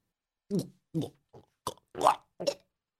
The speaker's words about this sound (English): That's the sound of you drowning